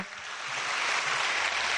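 An audience applauds at the end of a talk, a dense, steady wash of many hands clapping that builds slightly and holds at a moderate level, with no voices on top.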